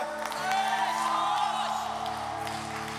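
A large audience shouts the name of Jesus together in unison after a count of one, two, three: a loud, sustained mass of voices that holds for about three seconds without fading much.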